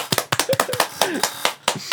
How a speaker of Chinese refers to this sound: 谢谢谢谢你，哎，掌声鼓励一下。